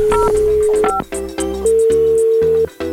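A phone number being dialed to call a nursery (szkółka): a string of loud electronic keypad tones, each a steady pitched beep that shifts in pitch from one to the next, with brief gaps and no talking.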